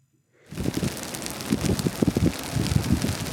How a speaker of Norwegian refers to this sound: Det knitrer i den tørrlagte skogen vest i California. Den såkalte Oak-brannen har kasta røk hundrevis av kilometer utover USA i nesten ei uke.